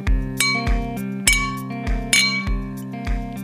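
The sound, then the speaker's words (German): A beer glass is toasted against a bottle again and again, each bright strike leaving a ringing glassy tone that overlaps the next in an uneven rhythm, with no talking. “Nee, ich habe ein Glas Bier Hä? gegen die Flasche geprostet.”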